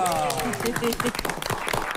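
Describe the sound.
An audience applauds steadily and loudly as a guest, a VTC driver, is introduced. Dense claps crackle throughout, with voices cheering and calling out over the clapping.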